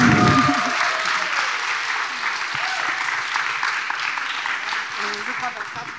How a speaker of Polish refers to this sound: Proszę o brawa. Dziękuję.